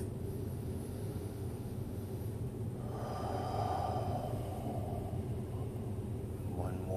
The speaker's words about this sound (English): Just taking a moment, breathing in the air that it's giving out. We can take a deep breath.